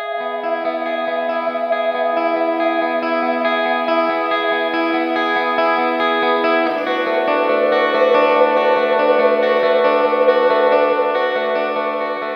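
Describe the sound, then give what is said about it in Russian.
A song plays on a radio broadcast. It is built from sustained, layered tones thick with echo and effects and shifts to a new chord about halfway through, at an even, full loudness with no talking. “она звучит прямо сейчас в нашем эфире.”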